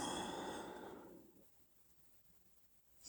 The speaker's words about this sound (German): Und jetzt wird das Atmen noch stärker